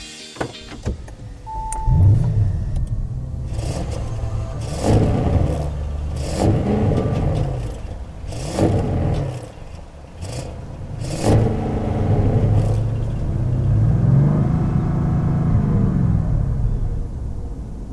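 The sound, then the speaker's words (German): An Audi RS6 engine, revved while stationary, climbs repeatedly in short bursts, each cut off abruptly by the soft limiter at roughly 3000 to 3500 rpm, a deep rumbling sound with no one speaking. “Da blockiert die Motorelektronik des Audi RS6 und möchte nicht höher drehen im Stand.”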